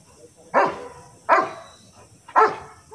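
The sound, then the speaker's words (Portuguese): A search and rescue sniffer dog from Rio Grande do Sul barks three times at an uneven pace at the spot where a father and son were buried by a landslide, each bark loud, with short quiet gaps between them and no one speaking. “Este cão do Rio Grande do Sul encontrou o ponto exato em que estavam pai e filho soterrados.”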